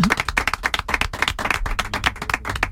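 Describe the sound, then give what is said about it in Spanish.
Audience applause in Seville on the Canal Sur Radio programme El Llamador: many hands clapping together in a dense, steady patter of sharp claps that keeps going at an even, fairly loud level, with no voices standing out. “os vamos a dar un aplauso.”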